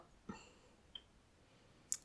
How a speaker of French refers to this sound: Je nettoie mon pinceau.